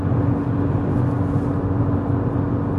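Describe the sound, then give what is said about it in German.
Steady, loud interior road noise of a car at speed on the three-lane 980 road leading onto the A7 motorway, a dense low rumble with a faint engine hum running continuously, no voices present. “An der Lautstärke des Autos merkt ihr, ich bin jetzt auf die A7 aufgefahren.”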